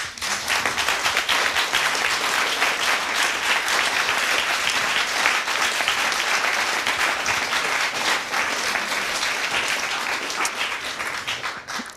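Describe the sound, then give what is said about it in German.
Sustained audience applause after a performance, a dense steady patter of many hands clapping at even loudness for the whole stretch, tapering slightly at the very end. No one speaks over it. “Noch einmal einen Applaus für dich.”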